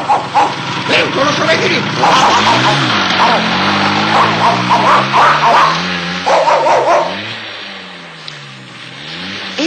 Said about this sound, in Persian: ناپی و لافی از دور ادگار رو دیدند که با موتورش به طرف مزرعه میاد